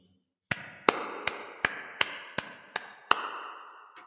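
A single person clapping slowly and steadily, about nine crisp, sharp claps in an even rhythm with no voices, followed by a short pause and one last clap.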